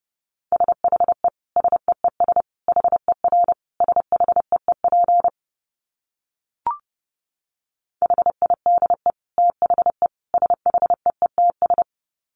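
Rapid Morse code beeps at 30 words per minute at a steady mid pitch, clusters of short dots and dashes in two bursts separated by a pause with a single soft click, no voices.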